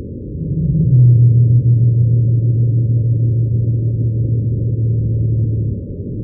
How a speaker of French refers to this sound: Et elles répètent ça euh, aussi pendant plusieurs dizaines de minutes. Mais ça prend aux tripes, moi je trouve. C'est tellement grave Voilà, la baleine bleue pygmée de Madagascar.